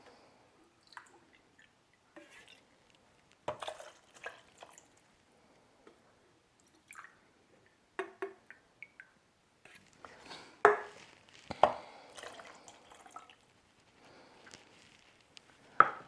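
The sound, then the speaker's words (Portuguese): 50 ml of cachaça and 100 ml of wine are poured into a glass over mashed lime in short splashes, mixed with wet squishing and small handling knocks, with a denser burst of liquid sound toward the end. “Agora que a gente já deu uma amassadinha no nosso limão, a gente vai adicionar aí 50 ml de cachaça e as 100 ml de vinho.”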